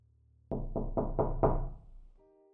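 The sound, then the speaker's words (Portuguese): Five firm knocks on a front door in a steady, evenly spaced rhythm, loud, followed by a faint electronic tone as they fade. No voices. “Você escuta a porta da frente tocando.”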